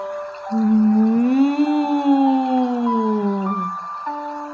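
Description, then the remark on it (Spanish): A cow moos in one long, drawn-out low call lasting about three seconds, its pitch swelling slightly upward then sagging at the end. Loud and steady, with no voices. “Las vacas mugen.”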